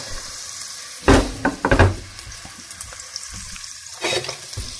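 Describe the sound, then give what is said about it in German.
Onions sizzle in hot goose fat, rendered from a cooked goose, with a steady crackling hiss, punctuated by louder bursts of spattering as they hit the pan, and no voices. “So wunderbares Gänseschmalz, fantastisch. Ja, ich tue die Zwiebeln da rein.”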